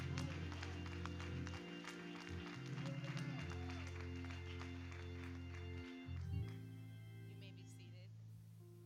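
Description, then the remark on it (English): An audience claps together in a clap of thanksgiving, a dense, steady burst of applause over sustained low musical tones; the clapping thins out after about six seconds while the tones carry on. “Give him a hand thank clap of thanksgiving.”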